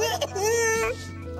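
A man in a video imitates a baby's cry: a high, wavering wail that rises and bends, breaks briefly, then trails into a softer whimper. It is fairly loud, with no other talk.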